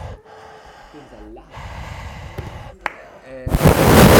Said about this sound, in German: Vorhin ins Mikro reingeatmet. Ja, das Atmen ist auf jeden Fall äh, pneumatisch sehr wertvoll.